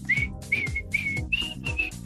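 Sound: person whistling a tune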